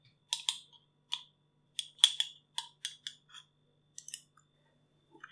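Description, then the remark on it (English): Crisp crunching and gritty scraping as someone eats crystallized raspberry jam, grainy sugar mush, a dozen or so irregular bursts over a few seconds with brief quiet gaps, no talking. “Here, you got some raspberry. I'll try it first in case it's very bad.”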